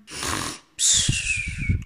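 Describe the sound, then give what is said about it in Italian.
A lion snoring in its sleep: a raspy, hissing intake of breath followed by a louder, low rattling snore, two breaths in all, heard on their own. “Un leone sta dormendo non lontan.”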